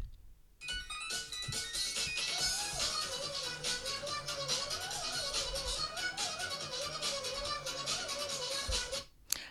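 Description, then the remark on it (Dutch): The Nyan Cat meme song plays: a bright, bouncy chiptune melody with a wavering, looping tune over a steady beat, loud and continuous, with no talking. “Ik ga je even een geluidje naam, laten horen, namelijk van de meme van de Nian or Nyan Cat.”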